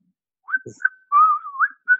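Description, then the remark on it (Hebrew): A person whistles a short, bright melodic jingle of the kind many companies use in tutorial videos, a few quick notes sliding up and down before a sustained wavering phrase, clear with no talking. “או אתה מכיר את זה שהיום יש הרבה חברות שעושות סרטוני הדרכה, ויש אה, כן. שריקה,”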